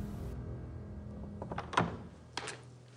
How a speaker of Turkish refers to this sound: İki kanatlı ahşap kapı açıldı.